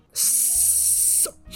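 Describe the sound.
A person imitates a rasping, wheezy breath, like a noise coming from a man's chest: a single steady, airy hiss lasting about a second, fairly loud, with a faint low hum underneath and no talking.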